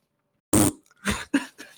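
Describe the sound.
A voice mimics a short but loud, typical fart: one sharp, raspy blast followed by a few shorter sputtering bursts, with no talking in between.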